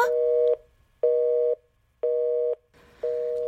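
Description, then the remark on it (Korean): A telephone busy tone after the other party hangs up the call: four steady electronic beeps in an even on-off rhythm, each about half a second long, clear, with faint line hiss behind the last. “내가 말할 새도 없이 전화는 끊어졌다.”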